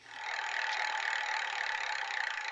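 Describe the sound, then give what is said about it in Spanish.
A roulette wheel spins with a rapid, continuous stream of bright ticking clicks, steady and fairly loud throughout, with no voices over it. “Último pasada, Marlene, por la ruleta, niño rotense.”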